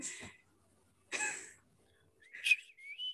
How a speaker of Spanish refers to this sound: No, es que no puedo silbar muy bien, la verdad.